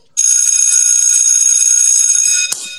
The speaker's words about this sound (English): Um, in the meantime, I guess we can go ahead and ring this school bell, right?